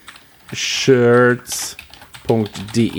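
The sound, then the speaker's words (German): Quick clatter of keys being typed on a computer keyboard, entering a web address, in short irregular bursts, while a person talks intermittently over the tapping. “Guck mal, gib mal ein. Gaming, warte, gamingshirts.de”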